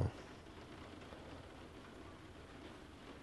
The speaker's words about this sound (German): Es regnet draußen und das finde ich zum Kotzen. Wie soll man sich denn fühlen, wenn der erste Urlaubstag schon nur aus Regen besteht?